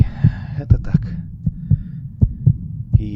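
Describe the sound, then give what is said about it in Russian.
A heartbeat thumps in steady lub-dub pairs, low and deep, growing louder, about eight beats repeating evenly over a few seconds, with a faint breathy hiss at the start and end. “С каждым мгновением сердце его билось все громче.”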